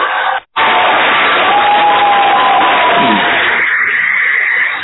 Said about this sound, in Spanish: Bueno, gracias, gracias Gorky por todos los aplausos y demás y los aplausos son grabados, pero son aplausos.